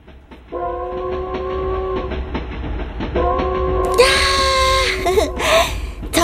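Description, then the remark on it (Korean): A train horn sounds in two long sustained blasts over a steady low rumble of rolling rail traffic, followed by a burst of hissing, clattering noise as the train approaches, heard from the hill behind a house. “저기 기차 온다. 기차.”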